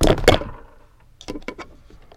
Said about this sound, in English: Sorry about that. A ghost just um ran by and knocked the mic down. Move, Casper.